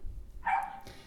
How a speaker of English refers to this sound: And I'm sorry if you can hear my dog in the background. She's just being the guard dog that she can, not the best guard dog that she can be. I think she's barking at a cat because she wants to play with it, but it won't play with her.